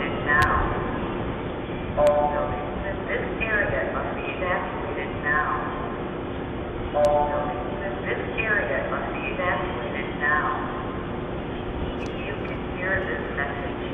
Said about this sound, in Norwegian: Nei, det er jo en sånn, eh, jeg holdt på å si ropert, jeg. Sånn ja, det høres ut som en ropert, ja. Eh, sier det sånn 'This area must be evacuated now', er det det jeg hører